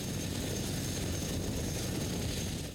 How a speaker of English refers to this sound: Chinook helicopters dropping Royal Marines from 40 Commando deep into a fictional enemy territory under cover of darkness.